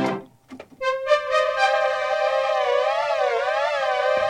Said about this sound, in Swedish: Så då Aha. vi låter bjuda lite på hur en poly Polysix låter.